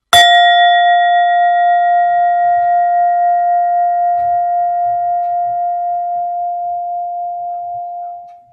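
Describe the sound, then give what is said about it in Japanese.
A single bell-like chime resting on a leather coaster is struck once, then rings out with clear, steady overtones that sustain for about eight seconds before fading, with faint background rustles underneath. “これがレザーのコースターの上のところにある状態での、え音色です。”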